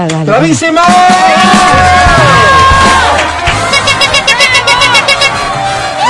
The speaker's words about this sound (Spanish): Gracias, Quito. Ya podemos aplaudir, ¿verdad?